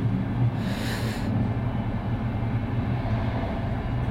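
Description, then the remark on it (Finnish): A steady, loud low rumble of a moving train, heard from the crew car at the rear of the train, fills the whole stretch, with a brief hissing swell early on and no voices. “Mä oon junan perällä, miehistövaunussa.”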